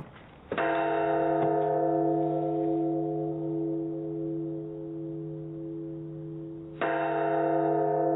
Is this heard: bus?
no